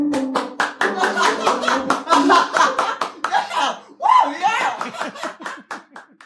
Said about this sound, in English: If you need an audience, look no further than Rent an Audience of the Greater Conejo Valley. We'll laugh and clap at anything.